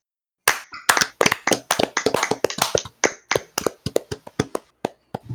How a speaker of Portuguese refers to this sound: Eu gostaria de pedir uma salva de palmas.